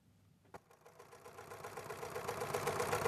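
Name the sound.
sewing machines running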